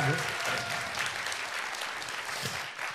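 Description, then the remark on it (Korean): An audience claps steadily for a few seconds, a dense, even patter of many hands with faint voices mixed in beneath it. “박수 한번 다시 네. 한번 주세요.”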